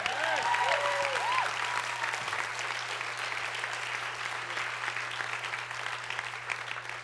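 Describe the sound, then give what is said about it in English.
An audience claps steadily and loudly, a dense wash of hands throughout, with a few brief whoops and raised voices over it at the start and a low steady hum beneath. “That's not enough clapping.”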